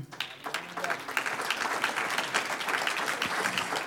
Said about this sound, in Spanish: Aleluya, cuando Él venga. Un aplauso al Señor.